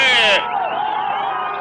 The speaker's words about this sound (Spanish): Aquí va a arribar Flores, va a arribar Flores, va a arribar Flores. Aquí viene el líder, el líder y el público lo aplaude.